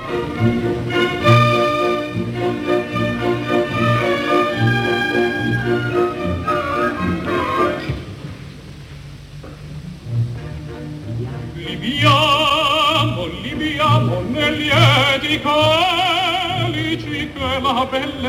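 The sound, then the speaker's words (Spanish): The famous brindisi (drinking song) from Giuseppe Verdi's opera La Traviata: a lively orchestra keeps a steady lilting beat under the melody, then soaring, vibrato-rich singing voices take over loudly in the second half. “el famoso brindis de la Traviata.”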